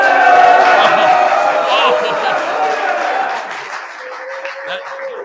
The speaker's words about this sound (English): Live from Camp Matziv. You guys can make some noise.